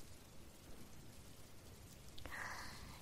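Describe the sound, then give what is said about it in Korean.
Steady, soft rain hisses evenly in the background, fairly faint and continuous, with a brief brighter patter or splash near the end. “비가 와서 다 젖었을 테니까 몸을 녹이고 오세요.”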